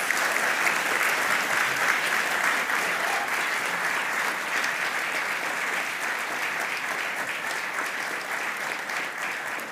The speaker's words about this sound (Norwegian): Eh, tusen takk til Erling Jevne og Tor eh, Gottaas. Stor applaus.